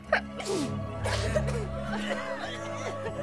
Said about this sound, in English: A handful of sneezes turned into a roomful of sneezes.